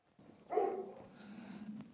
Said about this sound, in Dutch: Ja, zoals ik al zei, de hondjes slaan aan.